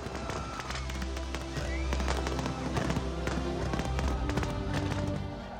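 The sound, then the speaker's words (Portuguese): A fireworks and light show in Hong Kong going off in dense, rapid succession, with sharp cracks and pops layered over a steady low rumble, staying loud and continuous throughout, with faint crowd voices mixed in. “Show de luzes e fogos também em Hong Kong.”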